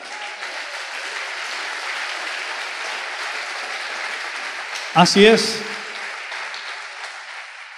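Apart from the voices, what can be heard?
applause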